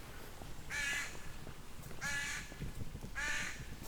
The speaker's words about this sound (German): Krähen singen. Sind ja auch Singvögel, ne? Rabenvögel. Da beweisen sie uns, dass sie Singvögel sind.